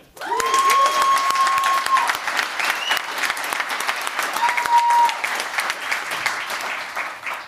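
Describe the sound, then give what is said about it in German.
A crowd applauds loudly and steadily with sustained clapping, punctuated by whoops and a couple of whistles rising above the noise. “Und jetzt auch mal bitte richtig viel Lärm für einen Menschen, der mir auch sehr am Herzen liegt”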